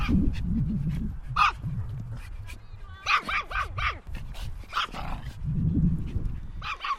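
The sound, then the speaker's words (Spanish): Several dogs bark and yip in a large 3,500-square-metre grass-covered dog park behind a heavy metal gate, a quick run of sharp, high barks in the middle with scattered yelps around it, over a low rumble of background noise. “Al otro lado de la puerta, que es metálica y pesada, para que los perros no escapen, se abre un enorme parque de 3.500 metros cuadrados cubierto de césped, donde las mascotas pueden correr a su antojo.”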